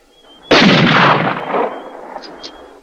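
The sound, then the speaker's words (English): A single loud rifle gunshot, fired by McKenna at three people riding horses north along a ridge. It is a sudden sharp blast that booms and rolls away over about two seconds, leaving a faint fading rumble. No voices are heard. “Less than a minute later, all three were on horses and paralleled the ridge north as McKenna fired again.”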